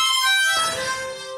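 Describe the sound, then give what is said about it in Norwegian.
A harmonica, found on the way up, plays a bright, reedy sustained chord that shifts to a new set of notes about halfway through, held steadily and fairly loud with no talking. “Det er faktisk et munnspill du fant på veien opp”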